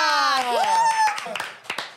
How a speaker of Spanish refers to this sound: ¡Un aplauso!